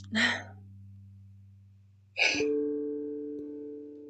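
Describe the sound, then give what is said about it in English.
Two short, breathy sniffs about two seconds apart from a person who had been crying, over a steady low hum, with no talking. “Sorry, probably you're probably gonna hear me sniffing.”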